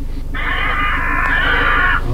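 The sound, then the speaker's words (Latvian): A single harsh, drawn-out crow distress call played back through a speaker from a computer used to drive birds away, loud and raspy for nearly two seconds over a steady low hum, with no talking. “Šeit ir arī baiļu saucieni putnu jā, iekšā tanī datorā, ar kuru palīdzību mēs dzenam projām putnus.”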